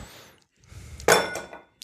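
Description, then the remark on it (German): A hard ice cube drops into a glass with a sharp, bright clink, followed by a brief rattle as it settles, fairly loud against quiet handling noise. “Ich gebe mir noch mal einen neuen Eiswürfel.”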